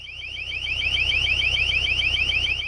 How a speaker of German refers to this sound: Das sind sogenannte Schallkanonen. Die Waffe sendet ein hochfrequentes Geräusch und kann so laut werden wie ein Düsentriebwerk. Mit ihr will Griechenland gegen Geflüchtete an der Grenze vorgehen.